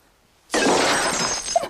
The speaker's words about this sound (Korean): 야, 너 내가 접시 파편 튀어 피라도 봤으면 어쩔 뻔했어.